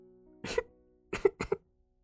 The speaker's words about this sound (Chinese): 花咳嗽了一阵，但并不是由于感冒。